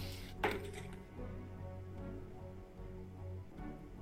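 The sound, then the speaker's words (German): Quiet, steady flowing water runs continuously in a subway (U-Bahn) tunnel, with a low droning hum underneath and a brief knock near the start. No one speaks. “Wir Aber hören fließendes Wasser.”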